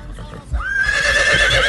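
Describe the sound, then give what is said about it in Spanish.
A horse named Rocinante whinnies: a rising, high-pitched call that settles into a long, wavering, strongly harmonic neigh, loud and sustained to the end, following a brief low thump at the start. “¡Hola, Rocinante! ¡Uy! Otro animal por ahí.”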